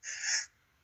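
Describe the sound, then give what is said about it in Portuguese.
A single short sneeze, a breathy, hissing burst lasting under half a second, followed by near silence and the start of another faint sound. “Saúde! Tá Saúde. Tá no podcast.”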